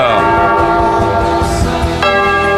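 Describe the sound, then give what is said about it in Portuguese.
A church bell, rung by the sacristan, rings loudly, its rich metallic tones sustaining and overlapping, with a fresh strike about two seconds in as the previous toll still hums. “Toca o sino, sacristão.”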